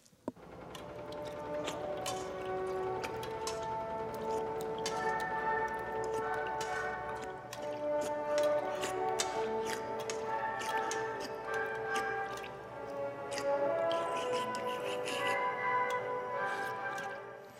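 In a film scene, an orchestral waltz, The Blue Danube played by the Bratislava Symphony Orchestra, plays steadily throughout while frequent sharp clicks, clatters and wet eating noises of a nurse, played by an actress, gorging on food punctuate it.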